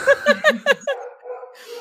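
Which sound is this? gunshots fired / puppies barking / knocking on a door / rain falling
puppies barking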